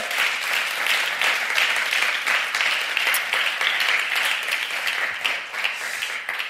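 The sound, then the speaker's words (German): Sustained applause from a sizable crowd at a church service, given for the band, dense and steady for several seconds, with many overlapping hand claps at a fairly loud level. “An der Band liegt es ganz sicher nicht, weil die war wieder fantastisch. Lasst mal einen Applaus geben.”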